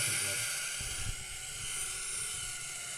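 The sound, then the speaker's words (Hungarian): A small Fiat Punto car engine revs during a power measurement, with a steady, high-pitched whine like an electric drill, droning continuously at moderate volume with a low rumble underneath. “Én villanyfúró hangja van egy kicsit. Igen. A villanyfúrós Ez pörög.”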